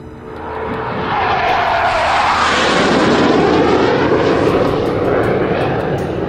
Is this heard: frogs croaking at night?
no